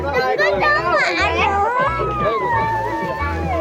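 A young child, scared while walking on a family trip in Sapa, Vietnam, wails and screams in loud, high-pitched, wavering cries, sustained and rising and falling over a few seconds, with low rumbling noise underneath.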